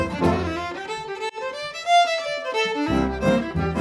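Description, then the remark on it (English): Fiddle playing a lively, bright melody with sustained bowed notes and sliding pitches, steady and fairly loud, with a lower accompaniment coming in near the end. No voices are heard. “And it's where the birds and the bees and the donkeys and the fiddles”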